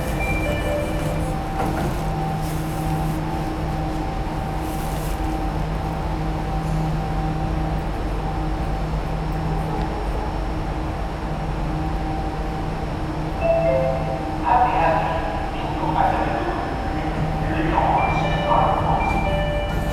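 A steady, loud rumble and hum from riding a Jakarta MRT metro train bound for Lebak Bulus Grab, with a faint whining drone throughout and brief higher-pitched squeals and clatter toward the end.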